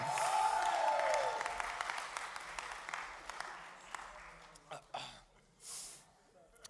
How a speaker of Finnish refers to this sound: Kiitos. Annetaan aplodit.